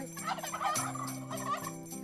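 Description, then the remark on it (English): A turkey gobbles in a quick, warbling burst, loud, its rapid rattling calls filling the short moment with no talking over it. “It's hard for the dead and worse for the living who end up like turkeys on headless Thanksgiving.”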